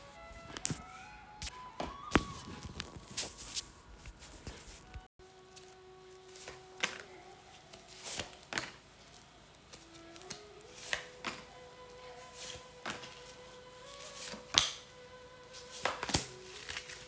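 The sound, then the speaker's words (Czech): Tarot cards being shuffled for a couple's reading, a steady run of crisp taps, flicks and soft slaps at an irregular pace, with faint sustained tones humming quietly underneath and no talking. “A já už se dívám na vaši fotku, míchám u toho karty a my se spolu podíváme, co nám Tarot poví o vás dvou.”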